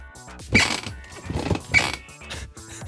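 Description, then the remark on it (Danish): A chair creaks and groans in a few drawn-out, grinding strains, with two louder rasping peaks, with no talking. “Hvad, hvad er sådan den typiske, hvad er folks typiske reaktion, første gang de hører dig knirke?”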